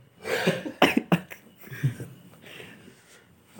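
A series of harsh coughs in quick bursts, several sharp hacking fits spread across a few seconds with raspy breaths between them.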